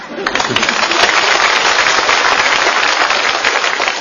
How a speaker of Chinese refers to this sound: 想不到还真有人鼓掌，这就算开张大吉了，这是。